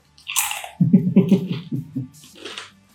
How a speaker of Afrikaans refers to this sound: Ek kan net vat as iemand eintlik hard kou nie.